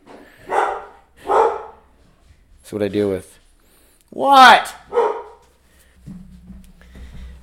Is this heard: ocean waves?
no